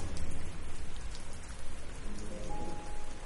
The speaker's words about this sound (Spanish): Que le falte un vidrio a la ventana, que entren por ese hueco la lluvia y el frío.